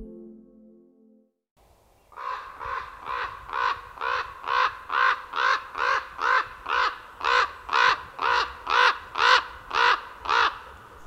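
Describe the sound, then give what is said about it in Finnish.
A raven croaks over and over in a fast, steady series of about seventeen harsh calls, loud, with no voices and only a brief faint tone before it starts. “Korppi ei ole lintu lintujen joukossa, vaan paljon enemmän, niin ihmisille kuin jumalille.”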